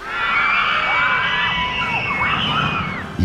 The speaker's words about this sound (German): Die Schreie hört man aber natürlich bei jeder Achterbahn